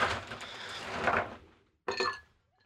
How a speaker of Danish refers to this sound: Så hælder vi sådan noget grebsaft i, og så skal vi have lidt isterninger over i det her glas. Bum, bum.